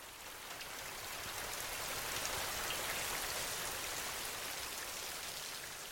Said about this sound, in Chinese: 下雨了，云层好厚啊！等等，应该会打雷吧？